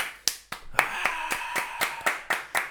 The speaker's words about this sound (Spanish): Ojo, ahora aquí todo el mundo de pie. Espero que estéis de pie y aplaudiendo, ¿eh? Hordas de gente aquí aplaudiendo.